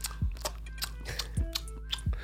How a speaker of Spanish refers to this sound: escucha un poco. La cabra masticando.